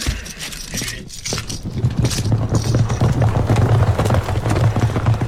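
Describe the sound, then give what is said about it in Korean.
Horse hooves gallop in a fast, steady rhythm of loud thuds, with a jingle of metal tack mixed in and a low rumble beneath, as Guiseong-gun Yi Jun rides his horse forward to approach. It builds briefly, then holds strong to the end, without voices. “귀성군 이준이 드디어 말을 달려 접근하였다.”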